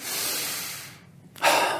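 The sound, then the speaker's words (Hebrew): A person demonstrates a full deep breath, taking a long, deep, airy breath in, pausing briefly, then letting out a quicker, louder breath. No talking. “האם הנשימות היו מלאות כמו...”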